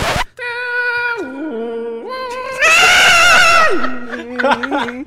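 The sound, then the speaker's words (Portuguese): A voice imitates a dial-up modem's connecting screech: a loud, nasal, warbling tone that steps and slides in pitch, swells into a harsh noisy squeal, then breaks into laughter. “É que você falou que a internet de escada tinha um barulho horrível.”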